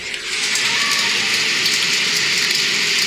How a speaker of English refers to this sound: Rain. That's, That's a good a, one to sleep to. You just need white noise, oh. you know, ambient noise.